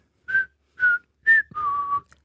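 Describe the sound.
Someone whistles a short pop song melody: three clear, separate notes followed by one longer sustained tone, a bright melodic line with no talking.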